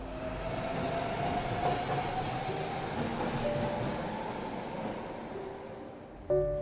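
A metro train rumbles steadily along the rails, with a faint whining tone riding over the continuous roar, and a short louder tonal jolt right at the end. No voices.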